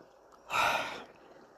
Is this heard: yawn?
yes